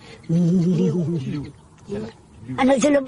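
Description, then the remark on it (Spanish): A lion roars in three deep, moaning bursts: a long drawn-out call, a short grunt, then a final rougher roar, with no other sounds around them. “Nuestros clics proceden del rugido del león.”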